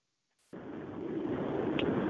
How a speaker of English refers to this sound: Uh, yeah, sounds a little windy in the background, but that's fine.